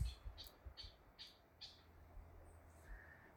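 A mangrove clapper rail gives a rapid series of harsh, clucking cackles like those of domestic hens, about four sharp notes in quick rhythm, over a low outdoor rumble.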